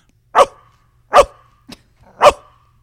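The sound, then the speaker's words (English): A person imitates a dog, letting out three loud, sharp barks spaced about a second apart with a short yip between the second and third. “How a dog barks?”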